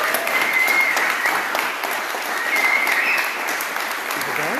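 An audience at a camp applauds steadily to thank a speaker, a dense wash of clapping that stays loud and even for several seconds, with faint voices now and then.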